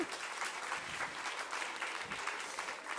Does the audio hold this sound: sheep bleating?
no